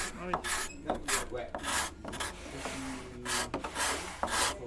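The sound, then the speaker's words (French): A hand scraper rasps across wood in a steady series of about eight short, bright strokes, each a hissing scrape with a brief pause between, moderately loud and fairly regular in rhythm. “le bon côté, là, c'est celui-là qui va racler”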